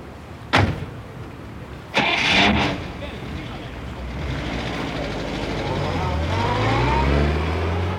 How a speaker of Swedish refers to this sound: pappa kom med bilen och de åkte iväg mot Tallinn, bort från idioten.